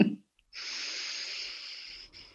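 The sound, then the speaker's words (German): A long, deep breath, a steady airy rush lasting well over a second after a short pause, ending with a slight catch. “Warte mal, atmen.”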